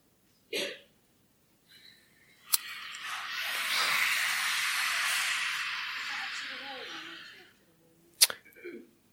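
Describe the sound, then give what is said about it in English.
A voice makes a long, steady, breathy throat hiss lasting about five seconds, moderately loud, as a voice exercise. Short sharp breaths or clicks come just before it and again after it stops. “Yeah, you get this throat hiss?”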